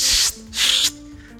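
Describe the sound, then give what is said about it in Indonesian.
A voice mimics two objects rubbing together with two breathy, hissing swishes in quick succession, each lasting a fraction of a second, moderately loud over a faint low hum. “kemudian ada gesek-gesekan antar antara apa antar dua benda gitu”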